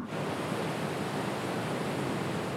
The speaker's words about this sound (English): Yes because wind doesn't sound good at all. Wind, if we just take like a sample of wind,